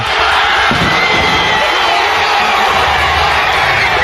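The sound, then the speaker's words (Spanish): A large crowd of Black Lives Matter protesters in Bristol cheers and roars loudly and continuously as the statue of slave trader Edward Colston is pulled down, a dense wall of shouts and whoops with no pauses or single voices standing out. “Es el momento concreto en que se derriba una estatua, la de Edward Colston, que fue un esclavista británico.”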